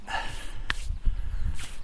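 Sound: dog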